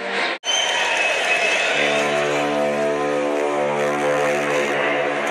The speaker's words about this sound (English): You have heard the big clap there. Can you believe it?